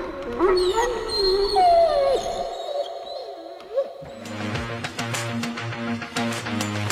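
Two dogs trembling in a corner whimper and howl in wavering, high-pitched glides for about two seconds. A low sustained tone follows, then rhythmic, percussive music takes over.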